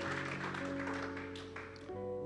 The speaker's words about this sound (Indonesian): Berikan tepuk tangan yang lebih meriah bagi Tuhan Yesus.